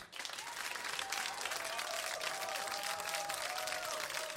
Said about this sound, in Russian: Под ваши аплодисменты, друзья.